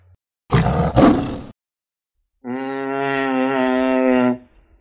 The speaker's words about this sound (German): Das sind diese rosa Dämonen, die groß sind und langsam und die mich beißen. Auf mich zurennen, ganz schlimm.